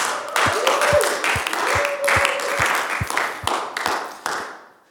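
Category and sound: crowd, audience applause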